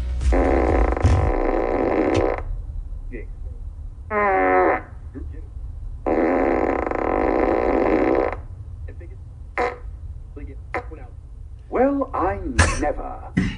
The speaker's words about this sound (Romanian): Și atunci Elon Musk a zis, hai uite sunetul ăsta. Orice fel de sunet. Și a făcut un sistem boombox care dă tot soiul de sunete caragioase, tip pârțuri, Uh, behăi de capră și altele asemenea.